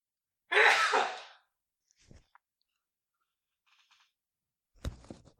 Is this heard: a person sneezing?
yes